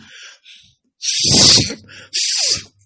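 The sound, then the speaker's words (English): Loud, hissy nasal breathing as someone clears out their nostril airways using one of Rico Roxx's techniques: a soft sniff, then two long forceful breaths through the nose, the first roaring and rough, the second sharp and airy, with no talking. “You guys hear how fucking loud my airways are?”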